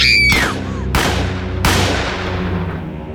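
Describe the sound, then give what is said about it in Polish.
A brief high scream from a frightened young woman is cut off by three loud gunshots fired toward her at a steady pace, each one booming and leaving a long reverberant tail. “Chase oddał w jej kierunku trzy strzały.”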